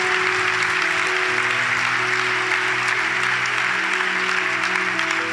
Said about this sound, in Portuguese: Vamos dar uma forte salva de palmas a Jesus pela sua igreja.